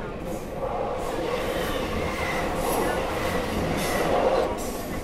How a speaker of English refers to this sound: Passing through Rhyl railway station